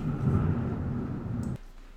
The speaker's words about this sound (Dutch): Holy shit. het onweert echt gigantisch. Ik weet niet of het kan horen, maar eh, sorry, ik ben even afgeleid.